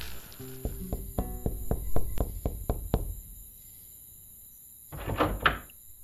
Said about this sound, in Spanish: También lo invade la fatiga, por lo que decide llevar a rastras su bicicleta, hasta que llega, por fin, a una puerta familiar. La golpea, desesperado.